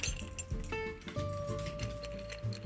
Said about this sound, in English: Eventually he'll come out here, but as I shake this, let's see if he comes in. As you can hear, I'm shaking his toy.